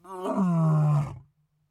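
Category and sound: animal, lion roaring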